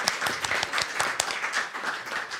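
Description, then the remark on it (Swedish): A short burst of audience applause thanking the person who chose the program's music, many hands clapping in a dense, steady patter with a few sharper claps standing out, fairly loud and with no one speaking over it. “En applåd.”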